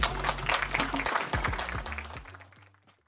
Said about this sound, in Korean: 네, 이재명 대표께서 오셨습니다. 여러 가지 어려운 게 혹시 대표님 큰 박수 한번 보내주십시오